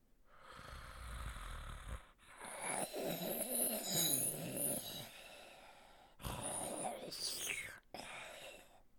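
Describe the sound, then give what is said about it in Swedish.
Heavy, rasping breathing from a large insect-like creature lying in a corner, fairly loud, with a few long drawn-out breaths and snoring-like rumbles separated by brief pauses, then a shorter final huff. “Och det ser ut att vara rätt så stort och det, det verkar som att det, det andas.”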